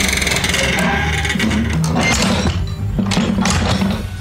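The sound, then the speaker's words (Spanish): Heavy metallic clanking and rattling, with a few sharp impacts as the metal gate of a lions' enclosure is swung shut and its latch catches, set against a dense, continuous mechanical din. “Cierro la puerta de los leones antes, antes que no se vaya a salir.”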